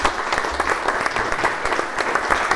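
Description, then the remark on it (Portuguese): A crowd claps steadily for the guests, a dense wash of many hands applauding at once, sustained throughout without a break. “Foi um gosto, um aplauso para os nossos convidados.”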